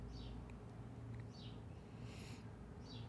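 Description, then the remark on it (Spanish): Faint bird calls repeat outdoors every second or so, short sweeping chirps with a brief buzzy burst between them, over a steady low background rumble. No one is speaking. “Y ahí están los pájaros otra vez gritándome amén.”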